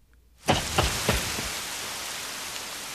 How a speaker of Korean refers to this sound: 두 손으로 머리를 가리고 빗속으로 뛰어가는